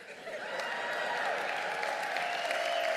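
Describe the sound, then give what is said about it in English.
A crowd claps and cheers in a steady, dense wash of applause that holds at full strength for the whole stretch, with a few whoops rising above it. “Make some noise if this brings great joy to your soul right here.”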